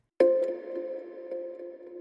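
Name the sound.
church bell ringing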